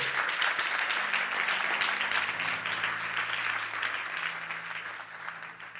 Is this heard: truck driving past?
no